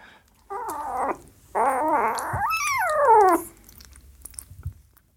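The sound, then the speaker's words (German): Two kittens about six weeks old growl while sharing one food bowl, in two drawn-out, wavering bursts, the second rising into a strained, whiny pitch before cutting off, leaving quiet shuffling behind. “Das ist, die teilen sich gerade einen Napf, weil der Napf ist eigentlich so groß wie die ganze Katze.”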